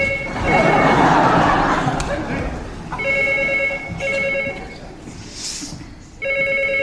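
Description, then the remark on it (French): A telephone rings in repeated electronic bursts, fairly loud, with short gaps between rings over a murmur of background noise and faint voices. “Téléphone J'entends.”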